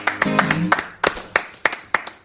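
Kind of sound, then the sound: crowd, applause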